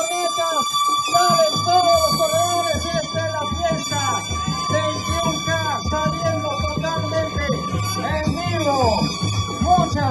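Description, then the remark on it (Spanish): The starting whistle of a running race, as the first 21-kilometre runners set off, sounds as one steady, sustained high tone that holds for the whole stretch, with a crowd's voices and chatter continuing underneath. “si podemos escuchar igual si lo regresamos, es el momento del pitazo de salida y cuando salen los primeros, bueno, los primeros atletas, todos estos que estamos viendo en pantalla son los de 21 kilómetros.”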